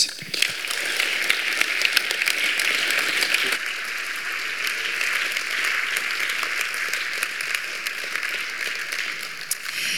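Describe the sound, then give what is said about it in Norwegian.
A crowd applauds steadily for about ten seconds, a dense wash of many hands clapping at once, even in loudness throughout, as an audience applauds guests about to be heard on stage. “Men gi dem en applaus.”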